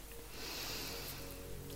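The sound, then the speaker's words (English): A slow, steady inhale drawn through the nose during a guided relaxation breathing exercise, a soft airy hiss that swells and holds for nearly two seconds, quiet and breathy with no voices. “And we're just going to take a deep breath in through our nose.”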